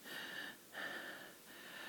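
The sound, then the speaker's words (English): Someone practises heavy, deliberate breathing: three long breaths in steady succession, each with a faint whistling wheeze, fairly quiet, with no one talking. “Just practice breathing.”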